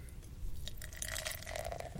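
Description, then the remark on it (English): Beer being opened and poured, a very pale gold beer with a foamy head of tiny bubbles: a soft click, then a steady fizzing gurgle whose pitch slowly rises as the glass fills, fairly quiet, with no talking. “All right, let me one moment while I, I pop up my top.”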